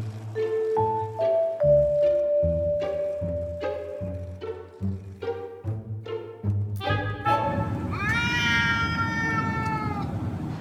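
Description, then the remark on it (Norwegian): Larry, the brown and white cat of Downing Street, meows in a string of short, closely spaced calls, then lets out a long, drawn-out yowl that bends in pitch. It is fairly loud, with no talking. “Den brune og hvite katten kom til Downing Street i februar i 2011, da statsminister David Cameron, kona Samantha og barna deres bodde der.”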